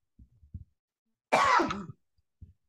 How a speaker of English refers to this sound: So I had this horrible cold. Okay. and it's like this lingering dry cough. Right. And it only happens at night.